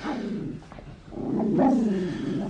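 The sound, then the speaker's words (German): A yellow dog growls low and steadily, breaking into a couple of short, rough barks partway through, with no one speaking. “Und der Hund?”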